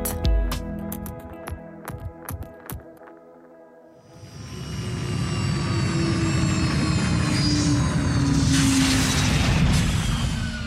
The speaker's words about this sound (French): Atterrissage forcé bien effectué, déverrouillage des portes en cours.